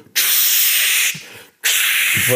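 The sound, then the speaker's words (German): A voice imitates the long hiss of spray deodorant being applied: one sustained, loud spraying hiss, a brief pause, then a second long hiss, with no talking. “Ich finde zum Beispiel, den, ähm, allein das Auftragen von Sprühdeo ist zwischen Männern und Frauen schon ein unterschiedliches Ding.”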